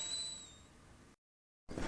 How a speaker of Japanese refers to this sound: いい音なります湯気の音